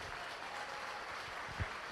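An audience applauds the Lord during a sermon, a dense wash of many hands clapping at once, continuous and fairly loud throughout with a brief low thump near the end.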